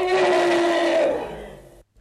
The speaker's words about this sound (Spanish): ¿Oyeron? Así braman o trompetean los elefantes.